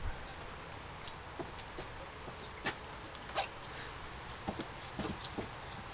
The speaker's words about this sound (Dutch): Een mistroostige bedoeling hoor, hier zo in de regen. Gadverdamme.